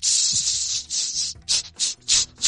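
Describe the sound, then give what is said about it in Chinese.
A pressure cooker, still steaming and carried around the dining room by staff during a themed banquet, releasing steam: a loud, high hiss that runs steadily for over a second, then breaks into several sharp, rhythmic bursts of hissing. “我给大家放下气哈，大家不要怕。”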